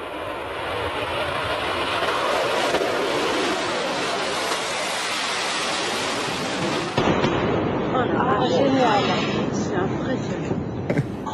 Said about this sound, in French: Ça fait un bruit de merde votre connerie là. Les New Yorkais ils ont peur à chaque fois que votre avion il passe. Eh. Donc c'est non. Tout de suite un extrait du Concorde.